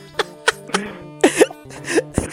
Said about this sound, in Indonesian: Anjir batuk-batuk dulu bangsa